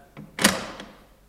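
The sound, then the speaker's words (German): A door bolt is shoved shut: a light click, then a solid metallic clack with a short ringing tail and a faint final tick, moderately loud, with no voices. “Warum riegelst du die Tür?”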